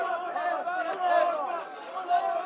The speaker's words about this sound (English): Instead, he found himself in the midst of a protest, his remarks drowned out by the crowd. People are chanting over and over again with our blood, with our souls, we will defend Palestine.